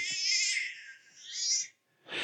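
A baby's high, quavering cry with a bleating, sheep-like wobble, heard twice in quick succession before a short breathy burst, slightly thin, played through a baby monitor.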